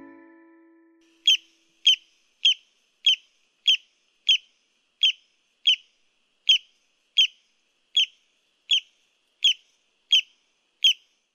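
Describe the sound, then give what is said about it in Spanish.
A broad-billed tody, a small bird of the Dominican Republic, calls in a steady series of about fourteen short, sharp, high notes, evenly spaced roughly every half second, clear with no other sounds around them. “Sí, es el sonido de un pajarito que vive en la República Dominicana y se llama el barrancolí.”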